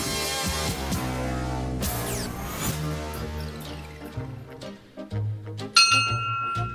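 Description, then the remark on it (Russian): A ship's bell (rynda), used as a radio program's weekly call sign, rings out in several loud, metallic strikes spaced a second or so apart, each clang leaving a long, shimmering resonance that overlaps the next. “Дорогие друзья, вы слышите э, наши позывные на этой неделе. Корабельная рында.”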